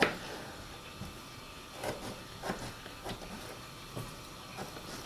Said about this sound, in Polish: No właśnie, powoli słyszą Państwo ten bardziej skwerczący odgłos z garnka. To znaczy, że trzeba do mięsa dodać troszeczkę wody, żeby się nam po prostu piekło, a nie spaliło.